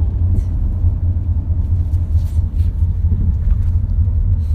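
Steady low rumble of car traffic rolling past, a continuous loud road drone with slight surges as vehicles pass, no voices.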